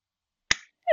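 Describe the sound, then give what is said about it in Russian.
A single sharp hand clap into a headphone microphone hits it hard and dies away quickly, followed a moment later by a brief higher-pitched tonal sound. “мне кажется, просто еще хлопать в наушник это не самая ловкая идея, как завлечь э, слушателей.”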